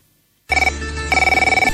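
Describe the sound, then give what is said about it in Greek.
A telephone rings loudly after a brief silence as a caller phones in from the shop he is closing, sounding in two fast trilling bursts with a short pause between them. No one speaks. “Είναι ιστορικό το τηλέφωνο αυτό γιατί είναι, σε παίρνω από το μαγαζί που κλείνω, ρε φίλε.”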